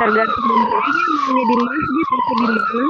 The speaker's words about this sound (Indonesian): Ih, suara apa Itu suara gue alarm. Jadi itu di rumah gue oh. setiap jam 9 ada alarm.